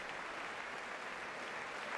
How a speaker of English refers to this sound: Overwhelming applause there, and it looks like he's stepping up to the podium right now, right here, to deliver the State of the Union address.